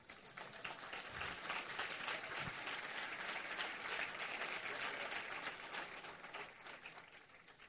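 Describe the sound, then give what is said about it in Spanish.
Audience applause for the attendees themselves: a dense, steady wash of many hands clapping for several seconds, holding a fairly even level before easing slightly toward the end, with no voices standing out. “Fuerte aplauso para ustedes.”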